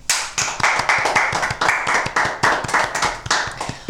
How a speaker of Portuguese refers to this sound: Uma palmas para mim.